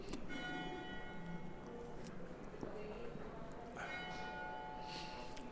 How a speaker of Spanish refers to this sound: y suenan las campanas de la iglesia que tengo enfrente. Me gusta que suenen como testimonio de la ciudad en la que vivo y en la que estoy.